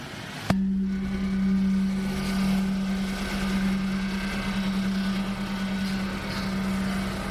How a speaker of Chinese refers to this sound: 这是在清迈的一个寺庙，不知道，因为清迈随处可见的各种寺庙当中，然后有一面很大的锣，试试看敲敲它的声音。